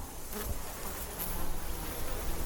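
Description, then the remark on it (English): A dense swarm of bees buzzes continuously, a steady droning hum that swells slightly louder partway through, with no voices or other sounds. “This all directs the female bee swarms to fly into the next valley around the barn, over the hill, through the forest to a flowering tree.”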